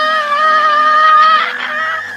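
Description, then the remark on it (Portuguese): A single voice imitates a female singer's sudden scream in the middle of a calm song: a loud, high, sustained shriek held for about two seconds, wavering slightly before it roughens and fades. “Não, mas só que pegar o vídeo dela na semifinal, assista pelo menos os momentos finais, e que ela dá um grito do nada, que assim, a música tá calminha de repente.”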